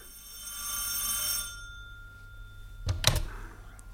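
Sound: telephone bell ringing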